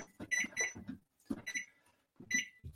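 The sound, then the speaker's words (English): A kitchen timer beeps in three quick bursts of rapid electronic chirps, separated by short pauses, with soft button-pressing thumps underneath as it is set for 35 minutes while a dish bakes in the oven at 400 degrees. “Center be set my timer.”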